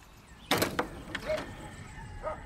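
A house door is opened one morning with a sharp click and rattle of the latch, followed by a few lighter creaks and knocks of the mechanism, moderately loud with no talking.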